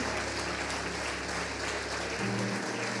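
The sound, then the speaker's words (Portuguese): Sustained applause for Jesus from people at a worship prayer, a dense steady wash of clapping at even loudness for about three seconds, with a low hum or tone shifting underneath near the end. “Aplauda ele aí.”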